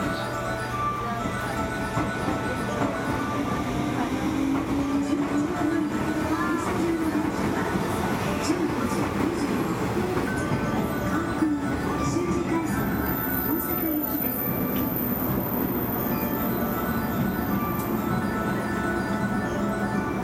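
A JR West 223 series electric train running as a Kansai Airport/Kishuji Rapid on the outer loop of the Osaka Loop Line from Tennoji to Osaka, its steady rumbling roar overlaid by a motor whine that climbs and falls in pitch as it accelerates, with faint rattling throughout.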